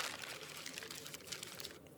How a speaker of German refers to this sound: du darfst gerne aus deinem Glas Schäleli vor dir ein Zettel ziehen und uns das vorlesen.